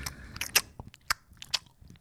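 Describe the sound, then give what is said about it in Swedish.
Close, wet chewing with sharp lip smacks and crunchy bites in an irregular rhythm, loud and intimate as if right by the ear, with no talking. “tuggande i örat. Någon sitter och smackar på en cola eller så.”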